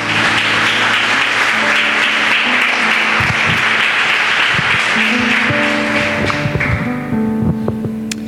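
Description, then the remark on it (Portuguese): A church audience applauds the Lord at an evening service in a dense, continuous roar of clapping, with sustained organ-like tones and low rumbles sounding beneath it; the clapping thins slightly toward the end. “Recebeu uma zeia aplaudindo ao Senhor em nome de Jesus.”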